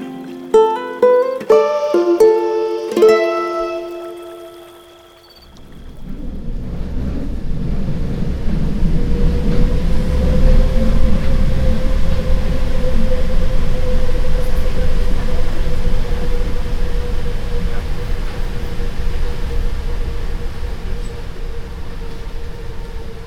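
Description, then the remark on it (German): A short run of bright chime tones, then a U-Bahn train rumbles loudly through Stadtmitte underground station in Berlin in October 2007, its deep roar steady with a rising electric motor whine over it. “U-Bahn-Station Stadtmitte. Berlin im Oktober 2007.”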